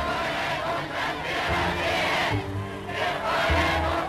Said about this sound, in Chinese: 当1938年2月德军开入维也纳，希特勒登上霍夫堡的阳台，宣布德奥两国合并，并得到了广场上人群山呼海啸的欢呼时呢？